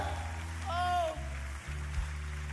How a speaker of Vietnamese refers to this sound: Tôi vui vì các bạn đã vỗ tay. Tôi là diễn giả đã khiến các bạn vỗ tay như thế.